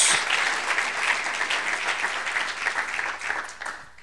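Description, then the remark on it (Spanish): A church audience applauds the Lord during a sermon in sustained, dense clapping that lasts several seconds, steady and fairly loud with no break. “Démosle un aplauso al Señor ahora.”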